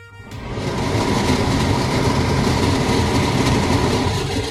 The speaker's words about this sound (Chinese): 然后呢，我就邀请大家来收听，呃，我们家的抽油烟机的声音。你好，抽油烟机。